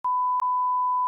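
A steady, mid-pitched electronic beep as a participant drops out of a call for the ninth time, held for about a second with a brief click-like break early on, clear and alone with no voices.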